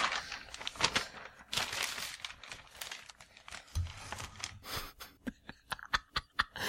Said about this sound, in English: I have a big notebook that I keep my notes in. It's very big. And it's very loud when I shuffle pages.